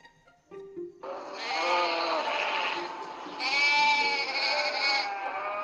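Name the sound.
sheep bleating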